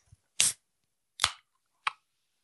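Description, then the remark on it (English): A drink can is cracked open: three short, sharp bursts of hissing fizz with quiet gaps between them and no voices. “I hope you really heard that fizz because oh, it was mm, music to my ears”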